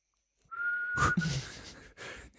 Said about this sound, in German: Aber ich kann's. Wenigstens kann ich pfeifen. Ich bin halt ein besonderes Pfeifkind.